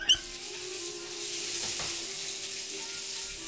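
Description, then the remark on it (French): Bath water runs in a steady, continuous hissing rush at moderate volume, with a faint low hum underneath and no voices, as Al Capone runs himself a bath. “Après avoir terminé son whisky, Al décide de se faire couler un petit bain.”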